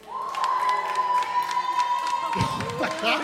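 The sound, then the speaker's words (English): An audience cheers and whoops loudly for house shoes, with one sustained high-pitched scream riding above the crowd, then scattered shouts and clapping break in near the end. “Let, us hear it for house shoes.”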